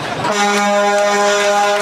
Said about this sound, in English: Yeah, honk honk. Honk honk goes the truck. Honk honk goes the truck honk, honk goes the truck.